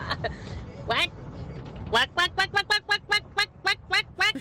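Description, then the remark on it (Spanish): A duck quacks in a few scattered nasal calls, then breaks into a quick, steady run of about a dozen loud quacks over a low background rumble. “Soy un pato de esos que les agarra su modo esquizofrénico y te persiguen por todo el parque.”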